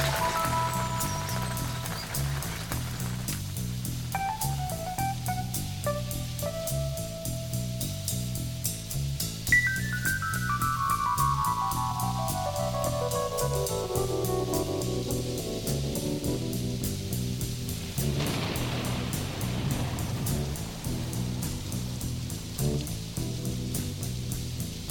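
Steady, heavy rain hisses throughout beneath mellow electric keyboard music, with a long descending run of notes and a low rumbling swell toward the end.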